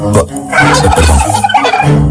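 A loud turkey gobble rattles out in a rapid, warbling burst lasting a couple of seconds, with no one talking.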